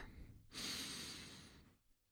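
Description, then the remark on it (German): A single long, deep inhale through the nose, fairly loud, a rushing airy sound lasting about a second after a brief pause, with no speech; Isaac breathing in deeply as Jacob embraces him in a Bible story. “Jakob umarmt seinen Vater. Isaak atmet tief ein.”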